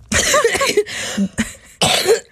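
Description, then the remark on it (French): A person coughs several times, a run of rough, harsh bursts with brief pauses between them, loud and raspy, with no talking. “C'est la saison de la toux.”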